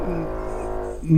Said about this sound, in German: Der bohrt, der, ich hab's gerade gehört. Der bohrt. ja. Der bohrt. Der bohrt in Wände, aber der hört auch gleich wieder auf. Ja, das ist nicht so schlimm. Er macht immer nicht lange, dafür ganz häufig.